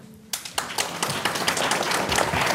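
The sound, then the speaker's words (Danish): Applause from an audience breaks out after a brief quiet moment, a dense patter of many hands clapping for Claus Meier that swells and holds steady, loud. “Ja, velfortjente klapsalver til Claus Meier.”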